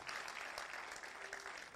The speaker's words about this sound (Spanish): Si usted lo está recibiendo, Siéntase libre de darle un aplauso al Señor.